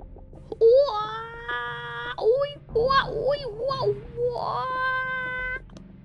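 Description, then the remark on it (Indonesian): A voice imitates the scream of the Tembiluk, a folklore creature, at the forest edge in the evening: drawn-out, wavering high-pitched wails broken by whimpering, sobbing cries, several bursts in a row, fairly loud with nothing else around. “Tembiluk memaklumatkan teriakan di mulut rimba pada suatu petang.”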